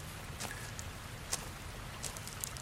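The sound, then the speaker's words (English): A steady, soft rush of river water flowing through a cave, with a few sharp drips and splashes breaking through now and then. No one speaks. “It's a river. How is this possible?”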